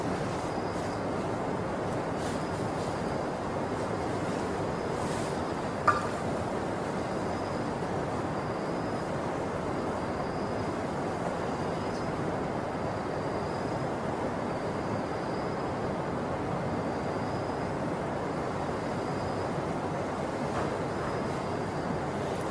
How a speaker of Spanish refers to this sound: Solo estén atentos del río que suena. Su respiración la dulce y tranquila y escuchen el río mientras fluye aquí a un lado de nosotros. Lo escuchamos.